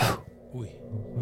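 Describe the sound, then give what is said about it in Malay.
A voice imitates ghostly breathing heard near one's ear: one sharp, breathy exhale hisses out at the start, followed by a few soft, low voiced murmurs. “Macam dengar suara nafas.”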